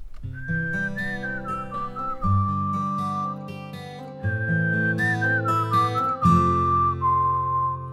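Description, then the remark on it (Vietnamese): A gentle instrumental melody plays alone, a high whistle-like lead line gliding over steady low chords and soft percussion, repeating its phrase twice at a moderate, even volume. “Còn bây giờ thì trước khi đến với những nội dung hấp dẫn tiếp theo của chương trình, xin mời quý vị thính giả cùng lắng nghe một giai điệu âm nhạc.”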